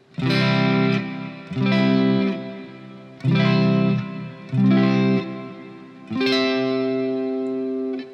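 An electric guitar strums a barre chord in a D shape, sounding as a C chord, five times, each one ringing out full and bright with an effected, slightly distorted tone. The last chord sustains longest, with no talking.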